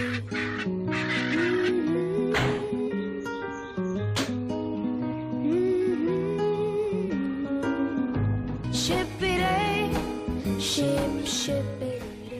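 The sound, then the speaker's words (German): Birds chirp and twitter continuously in a forest of trees and firs with a light wind, bright calls rising at intervals over a dense, steady backdrop of sustained tones; the scene stays full and loud throughout, with no one talking. “Oh, wie schön zwitschern heute wieder die Vögel.”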